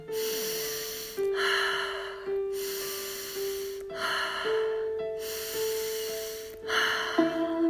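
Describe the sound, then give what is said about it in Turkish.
Slow, deliberate breathing, with about three cycles of air drawn in through the nose and released through the mouth, clear over soft sustained musical tones, with no talking. “Burnumdan alıyorum ve ağzımdan nefesi rahatça bırakıyorum.”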